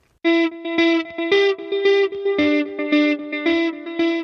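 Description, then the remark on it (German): A short burst of loud, distorted electric guitar music with a steady chugging rhythm of repeated chords, heavily processed with effects, played alone without any voices. “Wir hören erst ein bisschen Musik und dann geht's um Michael Frey.”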